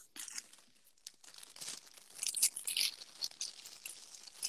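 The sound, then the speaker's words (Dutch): Continuous crinkling of very small plastic popcorn bags being handled, a dry crackly rustle that rises and falls in bursts for several seconds, with no voices. “Maar dat zijn van die hele kleine popcornzakjes.”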